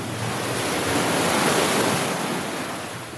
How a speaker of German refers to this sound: Es gibt quasi vor uns drei Löcher. Eins guckt in den Himmel und zwei aufs Meer. Und jetzt kommt eine Welle. Achtung, Achtung, Achtung, Achtung.